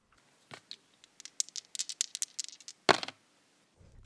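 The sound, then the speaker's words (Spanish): Dice rattle and clatter across a hard surface: a burst of quick, bright clicks and taps over about two seconds, then one louder knock as they settle, with no voices. “Vamos a lanzar los dados y cayeron en”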